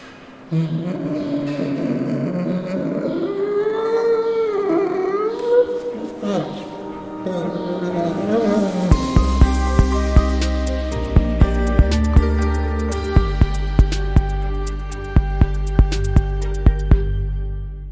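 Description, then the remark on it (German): A spectacled bear at the Frankfurt Zoo gives drawn-out, wavering moaning calls that rise and fall in pitch for several seconds, before loud rhythmic music with steady beats takes over. “Was ihr da gerade gehört habt, war ein Brillenbär.”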